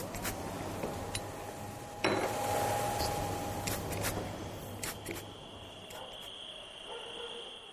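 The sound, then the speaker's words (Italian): Scissors snip in short, crisp clicks at an irregular pace in a barber shop near Termini station in Rome, over a steady hum, with a few faint clinks of metal and no one speaking. “Dalla mattina alla sera, in questi pochi isolati di città a ridosso della stazione Termini a Roma, il tempo è scandito dal suono di forbici, dal rumore delle attese”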